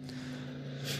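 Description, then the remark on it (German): A helicopter drones overhead, about to land, with a steady low engine hum and a faint airy whoosh, holding constant and swelling slightly toward the end, with no voices. “Nee, das ist der Hubschrauber, der gerade Motorradfahrer wahrscheinlich abholt.”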